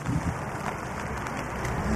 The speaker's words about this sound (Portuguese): Portanto, estão a ver passar a noite aqui ao relento e à chuva.